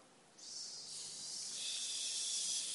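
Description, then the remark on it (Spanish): A long, steady hiss of breath pushed out through the teeth as a person exhales with hands raised above the head, palms toward the ceiling, starting softly then swelling and sustaining for a couple of seconds, with no talking. “Levanto las manos por encima de mi cabeza con las palmas hacia el techo y exhalando con el sonido”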